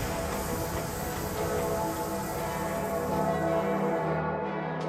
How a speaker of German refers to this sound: trug ich das Marmormikrofon eilends an die Lokomotive eines einfahrenden Zuges.